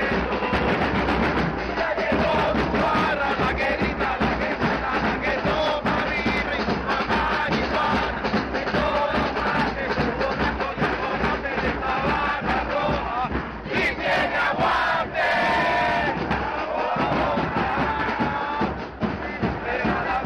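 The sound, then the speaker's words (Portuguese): A packed stadium of Caracas FC football supporters chants together loudly and continuously, a dense roar of many voices holding a steady rhythmic song from start to finish. “O Som das Torcidas #162 Caracas FC”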